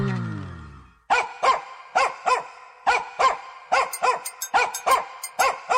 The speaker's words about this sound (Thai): เสียงอะไรอ่ะ ใช่แล้ว สุนัขเขี้ยวใหญ่ สุนัขเขี้ยวใหญ่ ร้องทักทายเธอไง